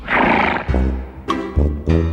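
mare neighing

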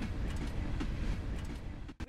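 train going by

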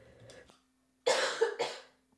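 cough

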